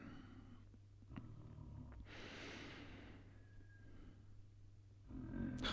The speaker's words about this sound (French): Mon voisin, c'est un musicien et il ronfle en rythme, en cadence avec cette mélodie qu'il n'a pas encore composée.